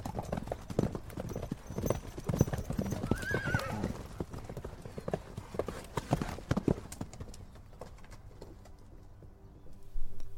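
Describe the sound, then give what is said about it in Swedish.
Horse hooves clip-clop in a quick, steady rhythm, fading as they move away, with a brief whinny rising partway through and faint birdsong behind. “Då kysste han henne, jagade iväg därifrån med sina hästar och förde hem henne till konungen.”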